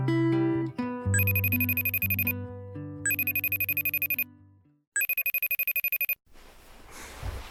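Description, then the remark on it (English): A FaceTime video call rings in three repeated bright, chiming bursts over a low melodic backing, then stops abruptly and gives way to a short stretch of soft noise. No one speaks. “why must you FaceTime me? Ugh, you're lucky I answered.”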